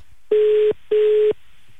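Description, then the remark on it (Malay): A telephone ringing tone on an outgoing call to a child's father: two short, steady electronic beeps in a quick double pulse, clear and fairly loud, with no voices. “nak telefon uh, papa dia”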